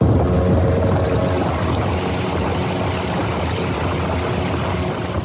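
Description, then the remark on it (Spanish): The engine of a wooden panga boat drones steadily and loudly throughout, with water rushing and splashing against the hull as it travels along the Pogue River toward the community of Pogue. No one speaks. “a la primera comunidad a la que fuimos se llama Pogue y para ello hay que navegar por el río del mismo nombre en una panga de madera.”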